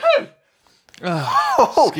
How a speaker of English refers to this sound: Hey, is that the first ever sneeze on um, the Back? I think it might be.